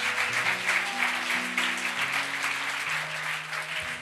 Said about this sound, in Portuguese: Aplauda Jesus mais uma vez por isso.